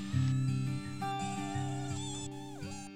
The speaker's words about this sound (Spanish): Oh, mira mis amigos los mosquitos. La mayoría son negros, pero siempre hay algo que los caracteriza.